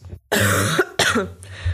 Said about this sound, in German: Boah, voll schön, dass ich schon wieder huste.